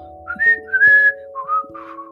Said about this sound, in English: Can anyone whistle? Whistle for a second, go on. Little whistle.